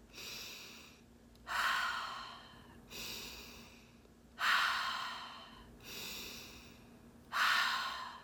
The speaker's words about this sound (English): So the breath pattern that we're going to be using is what is called the halo active breath. It's in through the nose and out the mouth.